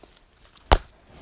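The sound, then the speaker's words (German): A single sharp knock as a mobile phone hits a hard surface, a brief clack standing out against a quiet background with no speech. “Das war mein Handy.”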